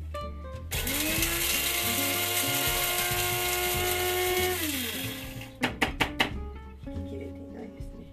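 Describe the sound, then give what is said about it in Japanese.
An electric coffee grinder grinds light-roast coffee beans, whirring loudly for about four seconds with a steady high motor whine that winds down, followed by a few sharp knocks and rattles as the grinder is tapped. “はい、だいぶ細かくなりましたのでこれを、えー、ガラスのねピッチャーにこのまま直接入れます。”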